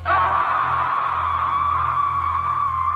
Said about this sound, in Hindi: वहां बस एक सन्नाटा पसरा पड़ा था और तभी इसी सन्नाटे के बीच किसी के जोर से चिल्लाने की आवाज आई